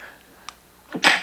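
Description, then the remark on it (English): A single sharp sneeze: a brief voiced intake snapping into a loud, hissy burst near the end, preceded by a faint click in an otherwise quiet moment. “I'm sneezing.”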